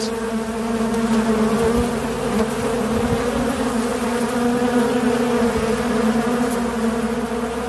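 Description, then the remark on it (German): A dense, steady drone of many honeybees buzzing inside a hive, loud, holding a constant hum throughout with no voices. “Im Bienenvolk ist es nun so, dass ähm, die Bienen Trachtreife, Trachtstärke erreicht haben.”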